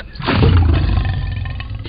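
A single loud lion roar in an advertisement for Lion Legal, a law firm in Arkansas, deep and rumbling, swelling quickly and sustained for nearly two seconds before tapering slightly, with no talking.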